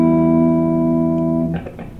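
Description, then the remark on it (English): A clean electric guitar chord, played through an amplifier without distortion, rings out loud and steady for about a second and a half, then gives way to a few quick, scratchy muted strums. “If you just go clean through the amp.”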